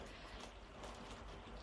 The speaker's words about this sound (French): Je ne sais pas si vous entendez la pluie qu'il y a derrière moi, mais au moins ça nous met une petite ambiance cocooning aujourd'hui pour parler du lâcher prise, c'est plutôt sympa.